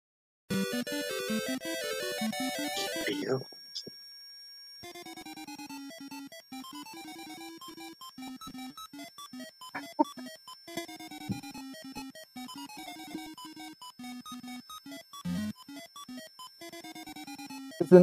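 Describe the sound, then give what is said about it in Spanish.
Retro video game music from Antarctic Adventure plays alone: bright, buzzy chiptune tones in a bouncy melody with a steady bass line, briefly dropping to a held tone before the tune resumes at moderate volume. “Bueno, en cuanto escuchemos la música de Burger Time, escuchamos Antarctic Adventure.”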